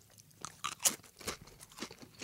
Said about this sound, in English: I think I like Lay's Stax better too. They're crunchier mm-hmm. or louder, you could say. They're louder in every way.